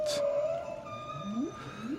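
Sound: humpback whale song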